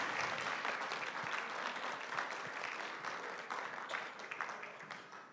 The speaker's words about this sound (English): Let's give the worship team a nice big clap offering for awesome praise.